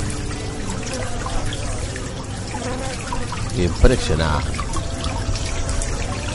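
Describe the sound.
Syrup pours steadily into beehive feeders at an apiary, a continuous trickle that runs through the whole clip over a busy background hum of bees and a radio, with a person briefly speaking partway through.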